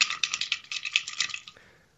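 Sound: dice being rolled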